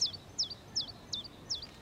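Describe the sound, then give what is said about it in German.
A common chiffchaff sings a steady series of five sharp, high chirps evenly spaced about a third of a second apart, clear over faint background hiss. “Und ist der Zilpzalp glücklich?”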